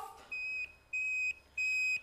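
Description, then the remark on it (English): A smoke alarm sounds three loud, shrill electronic beeps, each lasting about a third of a second with short gaps between, a piercing steady tone with no one speaking, set off by pasties burning in an oven. “Get them out of the oven or else there'll be smoke alarm will go off.”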